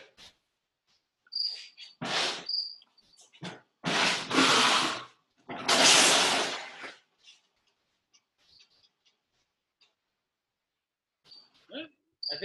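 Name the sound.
cricket chirping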